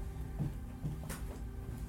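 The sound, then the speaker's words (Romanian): A door is opened with a short creak and a soft knock of wood, over a low steady hum, with no one talking. “Dacă vreți să deschideți puțin ușa aia, da, uitați-vă ce scriu.”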